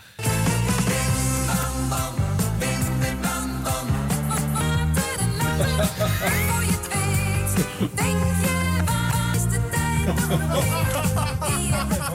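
An upbeat pop song plays from an old Radio 10 broadcast, played by DJ Rob van Zomeren, loud and continuous with a steady beat, dense instrumentation and a bright, full sound throughout.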